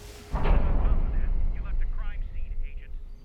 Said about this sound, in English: We're shooting through the door